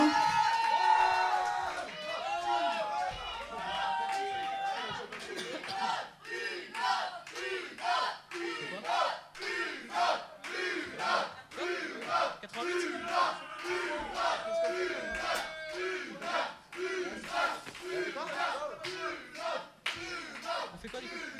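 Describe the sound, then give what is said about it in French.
The audience of a broadcast show shouts and cheers loudly for about twenty seconds, many voices yelling together over sharp bursts of clapping, the roar rising and falling in waves. “Les gens chez vous, faut crier une autre aussi.”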